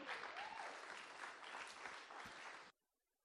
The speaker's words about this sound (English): Skal vi gi en applaus til? Kan vi ikke gjøre det? Ja.